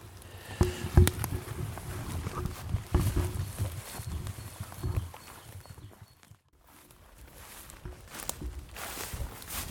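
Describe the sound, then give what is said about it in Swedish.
Steady footsteps crunch along a path, irregular thumps and scuffs with a few sharper impacts early on, fading briefly before the walking resumes. No one speaks. People walk down the base road toward the cycle path to look at young forest. “Då, då kan vi gå, faktiskt gå basvägen ner ja, till precis. cykelvägen.”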